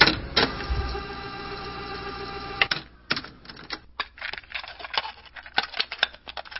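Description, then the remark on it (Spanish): A cassette is ejected and pulled from a player: a steady mechanical whir, then a sharp clunk followed by a run of small plastic clicks and rattles. No voices. “Vamos a sacar este cassette.”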